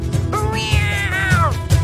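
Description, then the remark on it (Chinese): A wild cat chasing a mouse lets out a single drawn-out yowl as it runs faster; the yowl rises in pitch and wavers before falling away, loud and strained, with a low rumbling background underneath. “野猫一声吼叫，加快奔跑的速度。”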